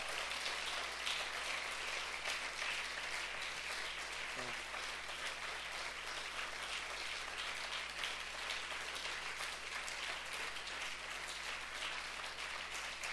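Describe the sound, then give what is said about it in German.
Steady applause from a sizable audience giving God a short round of applause in thanks for provision fills the whole stretch, a dense wash of many hands clapping at an even level without pause or building swells. “Lass uns mal einen kurzen Applaus geben.”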